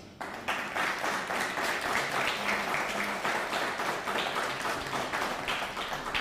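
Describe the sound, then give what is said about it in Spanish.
Sustained audience applause for viewers watching from Asia fills the whole stretch, a dense, steady patter of many hands clapping at an even loudness with no pauses and no voices on top. “También un fuerte aplauso a Asia.”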